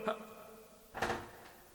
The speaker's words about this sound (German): Ich werde jetzt diese Tür öffnen, reingehen und nachsehen, ob es stimmt, was ihr gesagt habt.